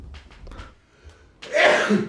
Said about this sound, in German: Gesundheit. Ah, Entschuldigung.